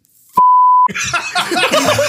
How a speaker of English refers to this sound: Listener, I have to tell this listener, since I'm assuming we bleeped that yeah, out. we definitely bleeped that out.